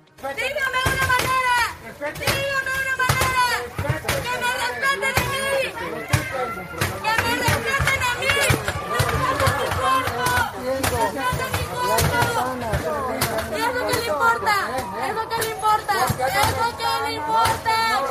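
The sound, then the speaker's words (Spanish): A hammer repeatedly smashes window glass of the Palacio Municipal in Tampico during a protest by the feminist group Brujas de Agua, sharp cracking blows landing loud in irregular bursts over the dense shouting and chatter of a large crowd. “Y escuchábamos cómo con un martillo estaban rompiendo los cristales del Palacio Municipal.”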